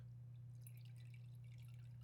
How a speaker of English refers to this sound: I'm about to pour up some more.